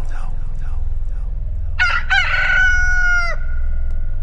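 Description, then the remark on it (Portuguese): A rooster crows once, loud, its harmonic call rising then holding steady for over a second before cutting off, over a low rumbling background. “E no mesmo instante o galo cantou.”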